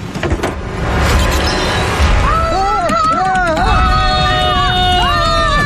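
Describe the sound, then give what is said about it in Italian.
Quick, drum-like taps imitate the running footsteps of someone fleeing at the start, then a voice takes over with wavering, sliding tones that swoop up and down over a steady background hum. “fugga, fugga, faccia rumore di fuga.”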